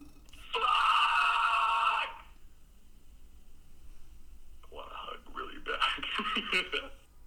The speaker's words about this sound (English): there's this video going around where all everyone's freaking out about his very cute laugh. And I'm, I'm gonna say I'm just gonna warn you guys. He screams first and he laughs. After.